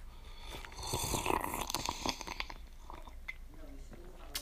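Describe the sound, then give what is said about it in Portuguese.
Someone takes a noisy sip of hot coffee just after waking up, an airy slurp lasting about a second, followed by a few faint swallowing and mouth clicks, with no talking. “Tomar um golinho do meu café porque acabei de acordar.”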